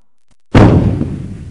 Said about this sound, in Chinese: 只听一声雷霆似的巨响，整个官邸内都响起了警报。